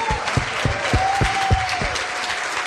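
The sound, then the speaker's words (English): A church audience claps together on Father's Day in a dense, steady burst of applause for the Father in heaven, with louder rhythmic beats roughly every quarter second and a faint sustained tone running through the middle. “And let's give a huge clap for our great Father in heaven.”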